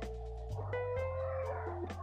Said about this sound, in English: You hear that? Dogs.